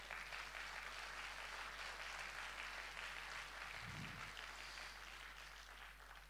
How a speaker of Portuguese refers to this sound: Você pode dar uma salva de palmas para Jesus, gente?